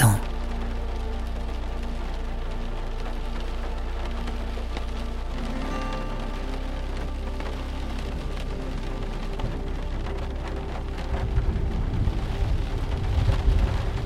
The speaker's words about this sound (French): l'orage arrive. Les oiseaux qui continuaient à chanter près de vous se taisent peu à peu, laissant place au grondement qui se rapproche. la pluie s'accentue.